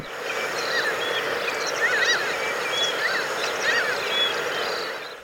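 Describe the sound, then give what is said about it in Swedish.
Mediterranean gulls call repeatedly in flight, short nasal yelping notes overlapping from several birds, carried over a steady outdoor hiss with no one speaking, picked up by a recording station's microphone. “Då hittade jag eh, en post som också var döpt till Svarthuvad mås dagen innan”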